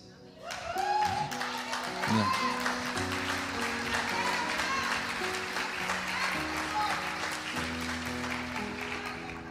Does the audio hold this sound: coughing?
no